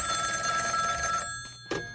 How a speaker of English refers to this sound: In the middle of an important moment in the pitch, the CEO's phone rang.